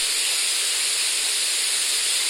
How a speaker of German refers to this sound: Siehst du? So kräftiges Rauschen. Siehst Und das Rauschen. Könnte jetzt auch ein Wasserfilm sein. Also es ist ein Rauschgenerator